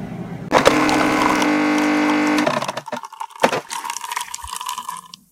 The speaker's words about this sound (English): Noise you heard at the beginning, that's my coffee maker, Rhonda.